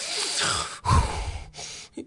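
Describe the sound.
A voice imitates the rough, raspy breathing of a man in a hospital gown wearing an oxygen mask, an evil spirit in the horror film Insidious: a long harsh inhale-exhale, a short break, then more ragged breaths ending in a brief gasp, with no talking.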